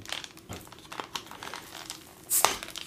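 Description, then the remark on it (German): A cardboard beer six-pack carrier being folded and crinkled into a bottle opener, a series of dry crackles and creases with a louder crunching burst near the end, no voices. “Ich mache einen Öffner aus dem Sechserträger.”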